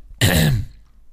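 A single throat clearing, close and fairly loud, a short gravelly rasp lasting under half a second, then quiet.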